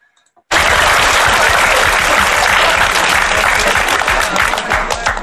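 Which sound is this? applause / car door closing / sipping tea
applause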